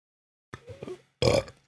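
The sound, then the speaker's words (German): A loud burp in two parts: a short rumbling belch followed by a longer, stronger one, with no talking around it. “Da muss ich glatt mal rübsen.”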